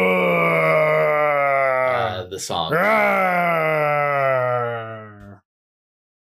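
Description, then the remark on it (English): A man imitates a bear with a long, loud, low vocal growl that holds steady for about five seconds, broken briefly in the middle, then stops abruptly into silence. “You're just, gonna, you're just gonna growl like a like a homunculus, like a bear.”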